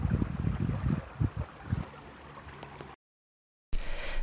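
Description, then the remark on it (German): Steady outdoor water noise of a river babbling, with irregular low gurgles and a rough wind-like rush, briefly cut to silence before resuming. No voices. “dich auf das wunderbare Plätschern im Hintergrund einlassen konntest”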